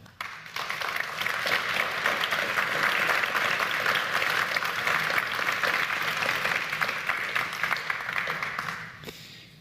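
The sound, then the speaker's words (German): A sustained round of audience applause thanking the event's three speakers, many hands clapping in a dense, steady wash that swells quickly, holds for several seconds, then tapers off at the end. No one speaks over it. “ein ganz herzliches Dankeschön mit einem großen Applaus, bitteschön.”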